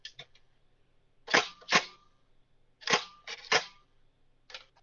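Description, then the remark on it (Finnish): A handful of sharp mechanical shutter clicks from an old Kodak Brownie E620 box camera, fairly loud, arriving in irregular pairs with brief pauses between them. No one speaks. “Tämä on nimittäin Kodak Brownie E620.”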